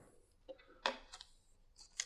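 A sheet of paper is handled, giving a few short, crisp rustles and crinkles in quick, irregular bursts. It is fairly quiet, with no voices.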